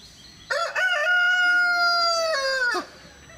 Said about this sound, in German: Mit diesem Augen, in diesem Augenblick krähte ein Hahn.